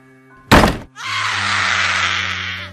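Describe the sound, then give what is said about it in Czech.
A sudden heavy crash as something breaks into the nearest door by the stairs, a bedroom door, immediately followed by a long, loud, piercing scream that holds for a couple of seconds. Both sounds are intense. “Zaslechli jsme křik a velkou ránu, jak se ta věc lámala do nejbližších dveří u schodů.”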